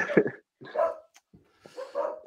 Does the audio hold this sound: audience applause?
no